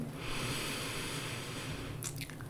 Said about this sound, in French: Puis bouche la narine droite avec le pouce, libère la narine gauche et expire à gauche.